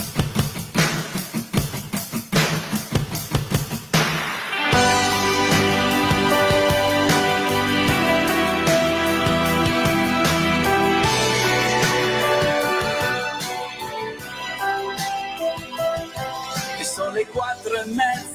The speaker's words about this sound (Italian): noi lasceremo la diretta aperta fino alla fine della canzone. Ascoltatevi questa canzone perché è veramente molto molto bella